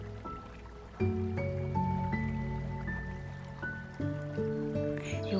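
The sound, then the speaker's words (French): Calm water trickles and flows steadily like a stream or river, a continuous soft wash, blended with sustained mellow musical tones that shift chords every second or so. “plus tu t'approches de ce ruisseau, de cette rivière, tu es devant.”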